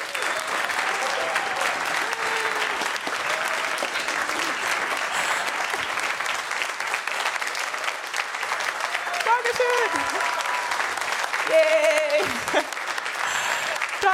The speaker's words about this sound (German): Sie ist das erste Mal bei uns. Einen gigantischen Applaus für die wunderbare